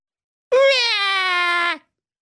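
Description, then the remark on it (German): A voice imitates baby babbling as one loud, drawn-out, whiny wail lasting just over a second, pitch sagging slightly toward the end, heard alone. “Und das Baby sprach”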